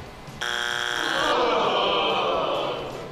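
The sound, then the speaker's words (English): A harsh, buzzy wrong-answer buzzer blares abruptly and holds steady for about a second, then gives way to a noisy wash that fades out. “Buzz me, it's wrong.”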